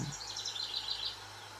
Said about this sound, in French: L'aubépine lumineuse s'offre à notre cueillette en visière de prairies et de forêts, et les oiseaux font entendre leurs plus beaux chants.